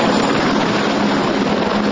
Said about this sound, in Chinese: 直升机吊挂救援，在陡峭山壁下的白色特斯拉轿车摔成废铁，消防人员得动用工具把门撬开。